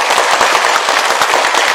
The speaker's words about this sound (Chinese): 呃，我不知道能不能够请大家给我一些鼓励的掌声呢？